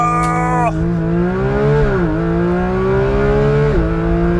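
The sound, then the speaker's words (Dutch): A Porsche 911 GT3 with a 4-litre naturally aspirated engine accelerating through a bend on a test drive, a loud, steady harmonic roar whose pitch climbs and then drops sharply a few times, like quick gear shifts, with no talking. “De Porsche 911 GT3.”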